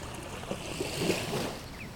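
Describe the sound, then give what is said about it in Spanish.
A strong sudestada storm wind roars steadily across a river, a broad rushing noise with faint rumbling gusts and the slosh of choppy river water beneath it, no voices. “Carancho no cruza ni loco con el viento que hay. Se vino la sudestada”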